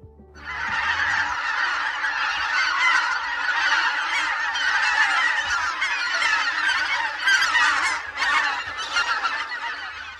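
A large flock of white-fronted geese calls continuously, a dense, loud chorus of overlapping high cackling honks that fills the whole stretch without pause.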